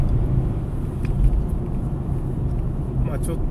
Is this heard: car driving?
yes